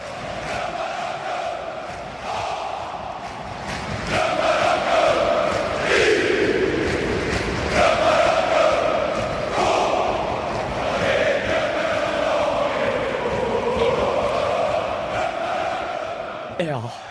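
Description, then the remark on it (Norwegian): A large football crowd in Sweden at the Djurgården versus AIK match chants in unison, a dense roar of many voices rising and falling in sustained waves, loud and continuous for the whole stretch with no single voice standing out. “vi kan eh, starte med vår lille tur eh, over grensa til en fotballkamp i Sverige. Det skal vi høre, da.”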